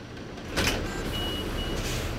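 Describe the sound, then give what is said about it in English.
Inside the moving free 85 city bus in Lawrence: a steady, low engine rumble fills the cabin, with a brief rattling bump early on and a faint high whine drifting over the drone. “Back on the 85 bus in Lawrence, two children walk to the very end of the bus.”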